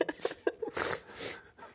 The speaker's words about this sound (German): Aber da kommt mein Schnupfen raus, verzeiht. Ich werde heute ziemlich viel schniefen.